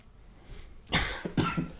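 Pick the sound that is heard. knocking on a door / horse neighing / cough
cough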